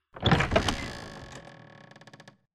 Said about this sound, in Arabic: فجأة الباب بيفتح